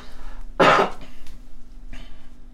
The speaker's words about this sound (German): Okay, ich huste nochmal, bevor ich lese.